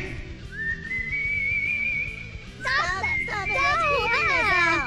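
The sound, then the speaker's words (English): A person whistles one long, steady, sustained note to whistle children to sleep. About halfway through, several children's voices burst in loudly over it, chattering and calling out. “Hey, children, do you want me to whistle you to sleep?”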